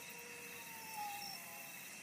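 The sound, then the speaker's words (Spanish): Faint, drawn-out howls of wolves in the background, a thin wavering tone rising briefly above a steady background hiss, with no voices present. “ahí se escuchan los lobos de fondo, cada vez están más cerca los animales.”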